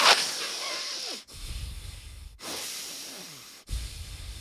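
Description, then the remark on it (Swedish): A voice imitates the heavy, snoring-like nasal breathing of relatives breathing while awake, sitting in a chair watching TV, alternating rough inhales and exhales in a slow rhythm of about four breaths, fairly loud with no talking. “Alltså det låter som att de snarkar i vaket tillstånd.”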